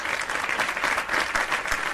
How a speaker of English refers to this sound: very quickly have some clapping for our brother DeSantis.